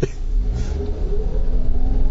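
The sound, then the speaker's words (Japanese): A car inches forward slowly while waiting at a traffic light on the drive home, its engine giving a steady low rumble with a slight rise in revs, heard from inside the vehicle for a couple of seconds. “ちょっとじりじり進みますね信号待ちなんだけど”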